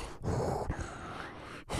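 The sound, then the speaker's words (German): Heavy, rasping breaths of someone apparently wearing a mask, heard from a first-person view at the opening of a horror film, a slow rhythm of about three long inhales and exhales with a muffled, hollow quality. No one speaks. “jemanden, der sehr schwer atmet, scheinbar eine Maske auf hat. Ähm, man hört es, es ist fast wie Darth Vader”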